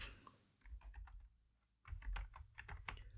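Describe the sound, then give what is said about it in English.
Quick bursts of computer keyboard typing with a few mouse clicks, fairly quiet, in an irregular patter with a short pause in the middle, as someone looks up plant prices online; no one speaks. “Hold on for a bit of clicking while I check this.”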